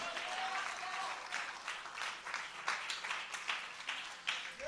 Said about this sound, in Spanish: Denle aplauso fuerte al que vive y reina.